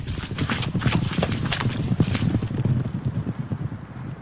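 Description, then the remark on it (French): Many hooves clatter and thud in a steady, overlapping stream as a herd of caribou passes through a campsite, through water and among the tent ropes, with faint wind in the background. “C'était les caribous qui passaient au travers de, de notre campement, qu'on les entendait dans l'eau dans les cordes de tente, tout ce qu'on voudra.”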